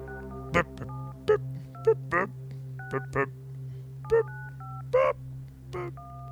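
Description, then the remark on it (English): A series of touch-tone keypad beeps as a phone number is dialed, spaced unevenly across several seconds, with brief vocal murmurs in between over a steady low hum. “Let's try a different number.”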